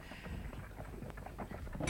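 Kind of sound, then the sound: animal, horses' hooves approaching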